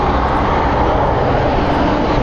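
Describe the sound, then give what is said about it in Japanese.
A steady, dense roar of car traffic on a main road fills the whole clip, a broad continuous rumble with no breaks, loud and unbroken. “ちょっと今車大通りに出たので車の音がちょっと激しいかもしれませんけど”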